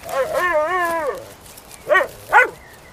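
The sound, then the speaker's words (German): A male dog lets out a long, wavering whine, then after a short pause gives two sharp barks in quick succession, with no other sounds around it. “Kommst du wohl von den Bären weg? Los, Hierher. So ist brav. Und jetzt sitz.”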